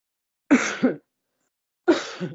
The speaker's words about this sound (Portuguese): Eu ainda estou com um pouquinho de tosse. Um pouquinho de tosse. Ô, oh, pigarrinho chato.